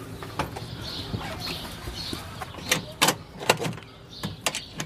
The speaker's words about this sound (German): Schon wieder die Taube. Ganz nah an mir vorbei.